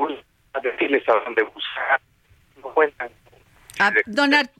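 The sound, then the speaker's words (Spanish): A caller's voice comes through a telephone line, thin and muffled, breaking up into choppy bursts with interference and dropouts, followed by a clearer, fuller voice speaking briefly. “¿me permite volverlo a llamar porque tenemos interferencia para escucharlo?”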